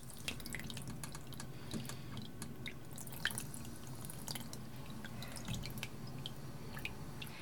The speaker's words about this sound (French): Tu es en bas de ma rue, à ta droite, il y a une petite fontaine. Tu entends l'eau couler.